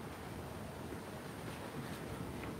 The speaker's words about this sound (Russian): Ветер поднялся. Видите, какой?